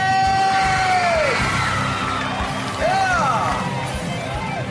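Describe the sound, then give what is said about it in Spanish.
A loud crowd lets out a sustained shouting cheer for women, several voices yelling and whooping together at full volume, with rising and falling hollers throughout. “Y que se escuche el grito para las mujeres.”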